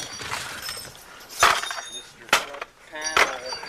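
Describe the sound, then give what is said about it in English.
Three heavy, uneven blows smash into a car's front panel as the car is beaten up for a Thrasher video, each a sharp crunching crash with a metallic, glassy rattle. Faint voices murmur in the background between the strikes. “Here goes the front panel.”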